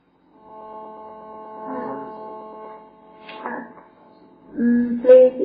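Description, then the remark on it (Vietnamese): A steady electronic buzzing hum of interference from a mobile phone in use starts just after the beginning and runs throughout at moderate level, with brief bursts of voice over it toward the end. “Xin lỗi nếu ai đang dùng điện thoại xin tắt để nó không bị nhiễu sáng.”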